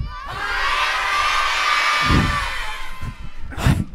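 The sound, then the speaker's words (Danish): A crowd of children cheers and shouts together in a loud, sustained, high-pitched roar that swells for a couple of seconds, then breaks into scattered whoops and bursts. The crowd fills Tivoli and carries flags. “Og jeg håber, at du kunne høre, at der simpelthen er fyldt fuldstændig op med glade mennesker med flag, der bare venter på at høre, hvad du har at sige”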